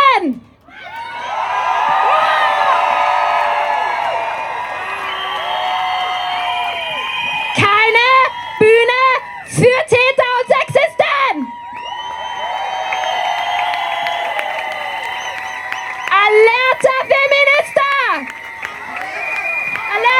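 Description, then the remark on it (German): A large protest crowd screams and shouts together in a sustained, loud roar, with high-pitched yells and whoops rising and falling over the full length, briefly dipping before surging again. “So, was können wir nun tun in einem System, in dem wir unsichtbar sind und schweigen sollen? Schreien!”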